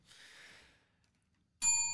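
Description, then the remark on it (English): A soft breathy exhale fades out, then after a short pause a single loud strike of a real bell rings out, its bright tone sustaining clearly at the end. “it's a real bell.”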